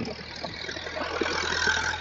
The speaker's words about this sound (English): We have a tractor right now coming our way, and a car behind.